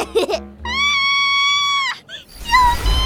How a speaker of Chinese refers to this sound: 就在这时，猫洛克和卢宝听到了一声尖叫。 嗯，在巷子里，